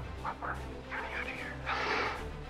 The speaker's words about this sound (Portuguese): Os cães de guarda começaram a latir e John Fordham não teve tempo de pular o muro, sendo surpreendido por Kenneth, que o esfaqueou 11 vezes.